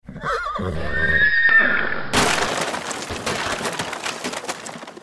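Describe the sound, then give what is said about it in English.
A horse whinnies loudly and shrilly for about two seconds, then a heavy crash of splintering wood erupts as a heavy wagon smashes into a rock buried in snow, loses its front wheel and turns over, rattling on with scattered clattering debris and hoof noise as the horses tear loose and bolt. “The horses tore loose from their traces and bolted, and the Slovaks scattered”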